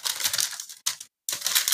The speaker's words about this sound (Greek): Έχω πάρει ένα χαρτί. Δεν ξέρω αν ακούγεται. Ακούγεται.